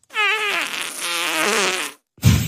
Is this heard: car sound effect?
no